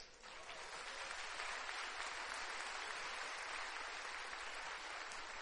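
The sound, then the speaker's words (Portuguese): A crowd applauds a scripture reading, clapping steadily for several seconds, a dense, continuous wash of clapping from many hands that holds at an even level throughout. “Tem que aplaudir um texto desse.”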